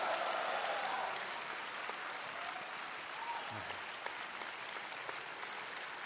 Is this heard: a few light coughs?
no